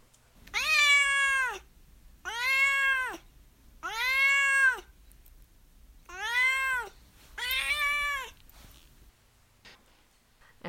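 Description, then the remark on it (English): Duarte, the speaker's pet cat, meows five times in a steady series, each call long and drawn-out with a rising then falling tone, fairly loud with short pauses between, no talking. “Of course, my cat Duarte will give his opinions about books and space.”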